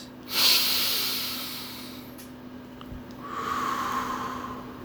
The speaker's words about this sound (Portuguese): Respirando fundo mais uma vez.